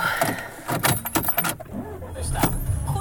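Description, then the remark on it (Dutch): Keys jangle in several quick metallic bursts as someone gets into a car to drive toward Heerhugowaard, with door and seat handling sounds and a low vehicle rumble underneath. “Nou, ik zit inmiddels in de auto richting Heer Hugo Waard.”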